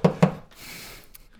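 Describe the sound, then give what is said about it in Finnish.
Two sharp knocks on wood in quick succession, fairly loud, knocked as a distress signal by people trapped under snow, followed by a soft scraping rustle and a faint tap near the end. “Lukiossa opittiin, että pitää koputtaa, jos on hätä.”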